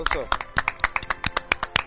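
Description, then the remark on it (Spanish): Hand clapping in a steady, quick rhythm, about four sharp claps per second, fairly loud and even, with voices faintly mixed underneath. “Aplauso, aplauso, aplauso grande.”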